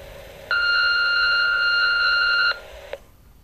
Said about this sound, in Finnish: Huonojen vanhempien tunnustuspuhelin. Lue tunnustuksesi nauhalle äänimerkin jälkeen.